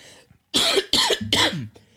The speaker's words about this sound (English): hold on, got a cough.